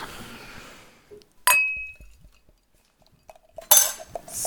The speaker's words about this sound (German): Genau. Also, machen wir die Flaschen auf. Jawohl.